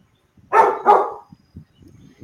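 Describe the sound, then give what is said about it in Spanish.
A dog barks twice in quick succession, loud, the two sharp barks followed by faint low rustling and quieter background sounds. “deja de ladrar, Kai, ya está bueno”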